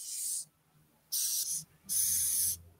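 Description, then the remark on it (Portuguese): A wingless Madagascar hissing cockroach, held in a person's hand, hisses in defense: three breathy hisses, each about half a second long with short gaps between, bright and airy like air forced through a tiny opening, with no talking. “E faz um barulhinho, não sei se dá para ouvir.”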